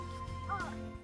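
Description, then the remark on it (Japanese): A crow gives a single harsh caw partway through, rising above a steady low background hum. No one speaks. “カラスがうるさいね。”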